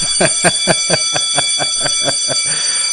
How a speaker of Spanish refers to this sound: Dice, ahora sí, ahora sí, ya comenzamos oficialmente. Suena, suena la campana, suena la campana ahora.